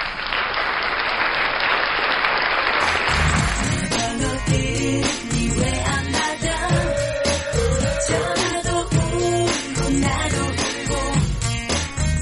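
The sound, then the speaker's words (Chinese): A burst of dense audience applause fills the first few seconds, then gives way to loud rhythmic music with a steady beat and sustained melodic tones. “你们再不鼓掌，我接着唱。”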